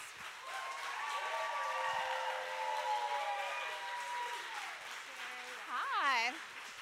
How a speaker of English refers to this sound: So joining us today, we have from a little show called Wynonna Earp. yes, clap for her,